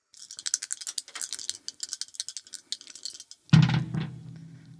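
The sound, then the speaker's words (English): Dice rattle and clatter in a cupped hand for about three seconds of quick, dense clicks, then land with a sudden loud, booming thunk that rings on briefly. No voices. “her fate will be determined not by anything as banal as destiny or as capricious as quantum indeterminacy, but by an honest, hardworking, good old fashioned roll of the dice.”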